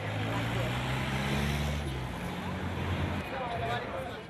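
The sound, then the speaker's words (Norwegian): Steady rumble of street traffic passing cafés in downtown Cairo, with a low engine drone from passing vehicles, loud, mixed with indistinct background voices. “Trafikken går forbi kaffebarene i Cairo sentrum.”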